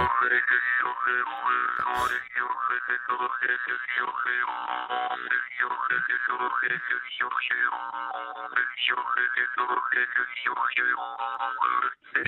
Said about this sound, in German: Ich improvisiere jetzt einfach mal ohne Stimme, also wirklich nur mit dem Klang der Maultrommel dahin. Das ist eh, ja irre. Das klingt ja wie Synthesizer.